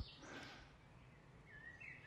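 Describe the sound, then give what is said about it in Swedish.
Faint birdsong on a forest trail in Klippan: a few thin, high chirps and short whistled phrases over a soft, steady background hiss, with no voices. “lyssna på eh, fåglarna som också säger hej då. Det har blivit mycket fågelkvitter i mina avsnitt”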